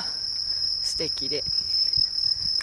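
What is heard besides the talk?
bell crickets chirping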